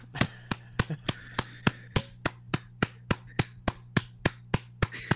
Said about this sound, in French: un peu, laisse-moi applaudir un peu.